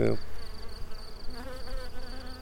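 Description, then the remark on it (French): A steady hum of many bees buzzing in lime trees around a farm in mountainous country at 700 metres altitude, a soft, continuous drone with faint wavering tones, with no talking. “On a les abeilles dans les tilleuls là qu'on entend.”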